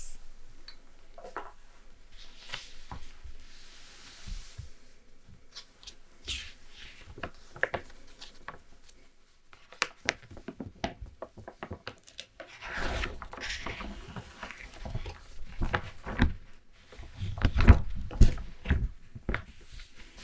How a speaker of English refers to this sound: Let's put the atlas aside and get to the map.